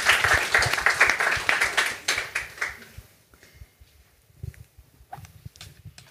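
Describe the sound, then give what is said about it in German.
An audience applauds with dense, rapid clapping that fades out after about three seconds, leaving a few scattered claps and faint low rumbling. “Ah, jetzt gibt's Applaus, finde ich gut.”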